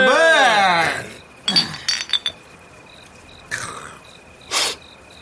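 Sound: glasses clinking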